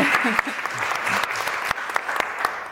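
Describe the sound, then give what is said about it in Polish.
Steady applause from the audience at a live debate event in Poland, a dense wash of many hands clapping with sharp individual claps popping out, sustained at an even level throughout. “Tak, tak, brawa, koniecznie.”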